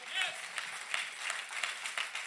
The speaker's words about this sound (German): Und deswegen lasst uns doch mal gegenseitig einen riesengroßen Applaus geben und feiern, dass wir gemeinsam Gottesdienst feiern an drei Stunden als eine Kirche.